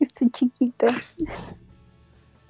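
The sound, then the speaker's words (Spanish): A woman speaks briefly and laughs, then a single sharp sneeze bursts out, followed by quiet. “Salud.”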